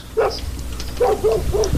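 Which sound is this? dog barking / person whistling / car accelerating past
dog barking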